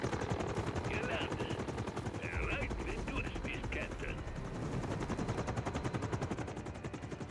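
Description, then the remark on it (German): Rapid, steady bursts of video game machine gun fire rattle continuously and loudly over a low mechanical drone, with brief voice-like chirps in the middle. “Schüsse.”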